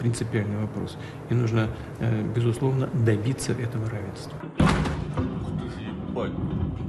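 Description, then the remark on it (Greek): A man talks steadily, then a sudden loud explosion booms in at night in Sevastopol, Crimea, followed by a rumbling, noisy aftermath that lingers under the scene for a couple of seconds. “Εκρήξει συντάραξαν τη νύχτα τη Σεβαστούπολη τη Κρυμαία”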